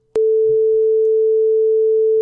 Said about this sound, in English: Fuck, I have to edit that. Okay, I'll put a beep there.